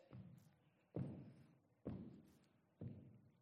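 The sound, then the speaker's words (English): Four heavy scuffing stomps land in a steady rhythm about a second apart, each a sharp thud trailing off into a brushing rasp, as people leaving a house wipe their shoes hard on the welcome mat at the front door. “They're wiping their feet on the way out.”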